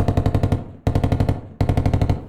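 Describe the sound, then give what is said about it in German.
Three quick bursts of rapid automatic gunfire inside a house, each a tight string of sharp, loud shots with brief pauses between, echoing. “Da waren auf einmal Schüsse zu hören. Irgendjemand ballerte wie wild im Haus herum.”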